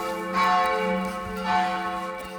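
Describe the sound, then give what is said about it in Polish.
A large bell rings out with a rich, sustained metallic tone, two swelling strikes blending into a long humming resonance, clear with no talking. “To co, z mojej strony to tyle. Dzwonimy? Dzwonimy, dzwonimy.”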